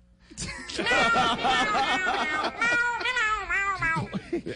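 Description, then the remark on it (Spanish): A man imitates a cat, voicing a run of drawn-out, wavering meows back to back, loud, with no words spoken. “Y el señor que le está poniendo los sonidos del gato”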